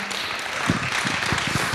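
An audience at a worship gathering applauds after a personal story is shared, a dense wash of many hands clapping at once with a few sharper, louder claps standing out from the steady crackle.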